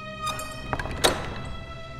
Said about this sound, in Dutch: Ze klopt op de deur, ze vraagt aan de, aan de geestelijke aan de andere kant: opent de deur of we zijn verloren.